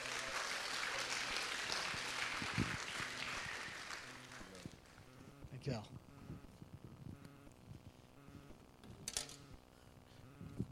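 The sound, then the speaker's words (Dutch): An audience in Rotterdam claps loudly for about four seconds to welcome a speaker, a dense wash of applause that gradually thins and fades out, followed by quieter background noise and some scattered sounds. “Geef je nog één keer een groot applaus.”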